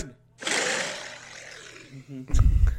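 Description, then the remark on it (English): A rough, breathy lion roar rises and rumbles for about two seconds, followed by a heavier, louder low growl cutting in at the end. “I think that's a lion.”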